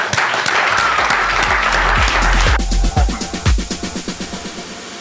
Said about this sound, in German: Ja, rein, und auch hier einmal einen Applaus, Shellys Schurfix!